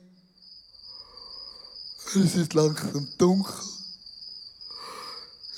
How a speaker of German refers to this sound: plötzlich die Jünger hören Grillen im Garten Gethsemane.